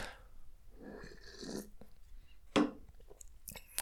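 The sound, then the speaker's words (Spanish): A quiet sip of coffee: soft slurping and breathy mouth noise for a second or so, then a sharp tap like a cup set down, and another brief knock. “Pausa para trago de café.”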